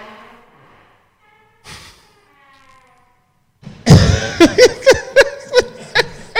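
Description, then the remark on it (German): After a near-silent stretch, a very loud door suddenly creaks open, followed by a rapid run of sharp, rhythmic squealing creaks and knocks. “die lauteste Türe, die ich jemals gehört habe.”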